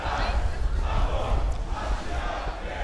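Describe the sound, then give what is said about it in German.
A large crowd shouts and chants together, a dense, loud wall of many voices with no pauses, heard from within the throng at a street demonstration. “Ja, vielen Dank, dass ihr uns begleitet habt auf unserer ersten Demo als Dichte Gedanken.”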